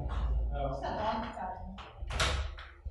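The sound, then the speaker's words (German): A door creaks and groans through a few seconds, with a louder scraping swing near the end, while voices murmur in the background. “Es ist sehr cool, dass es so knarrt.”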